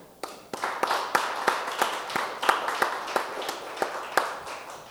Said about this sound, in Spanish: Quiero darles un aplauso.